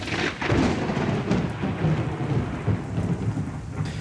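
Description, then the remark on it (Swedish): A loud roll of thunder, opening with a sharp crack and settling into a deep, continuous rumble, with rain hissing steadily in the background and no voices. “Tors hammare som smäller då det åskar.”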